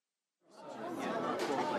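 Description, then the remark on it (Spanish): Busy café ambience fades in after a brief silence, a dense murmur of many overlapping voices chattering at a steady level, with no single speaker standing out. “cafetería, personas, voces, sonidos.”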